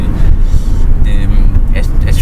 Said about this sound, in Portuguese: E acabou de passar um carro da polícia por mim, eu aqui tipo com o microfone aqui mesmo